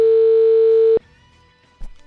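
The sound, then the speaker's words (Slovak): A loud, steady telephone ringback tone of an outgoing call from radio station Európa 2 to a listener who won a vote sounds for about a second, then cuts off, leaving near silence broken by a brief soft click. “No a my teda ideme zavolať výhercovi a možno poznáte telefonát, keď vám niekto zavolá.”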